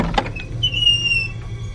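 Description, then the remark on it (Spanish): The old, worm-eaten wooden door of a stone-walled house creaks open by itself on a silent summer night before dawn, a thin, drawn-out squeal of the hinges rising over a low, dull rumble, with a brief knock at the start. “Súbitamente, la puerta de madera carcomida de una casa con muros de piedra se abre por sí sola.”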